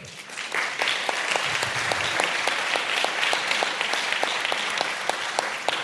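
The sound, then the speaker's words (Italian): Steady audience applause, a dense wash of many hands clapping at an even, loud level throughout, with a few sharper individual claps standing out in a regular rhythm. “Propongo di non applaudire più fino alla fine, alla così fine.”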